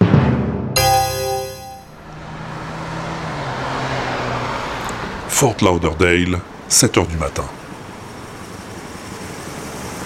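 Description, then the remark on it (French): A limousine's engine hums with steady road noise as it drives up, then the rumble eases off as it stops in front of a barrier at the entrance to a glass and smoked-steel building, while a voice speaks briefly over it. “La somptueuse limousine s'arrête devant la barrière qui interdit l'entrée à un majestueux immeuble de verre inoxydable et d'acier fumé.”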